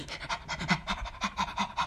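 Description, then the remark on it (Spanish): A person mimics a dog panting, rapid breathy huffs in a steady rhythm, about ten quick pants over two seconds, moderately loud with no other sounds. “no sé por qué se me vino eso, pero es como que está todo el tiempo buscando algo, ¿no? como un perrito pesado, ¿entendés?”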